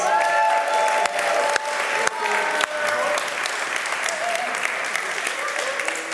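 An audience breaks into a round of applause, a dense, steady wash of clapping that holds strong for several seconds, with some faint cheering and tonal murmurs mixed in underneath.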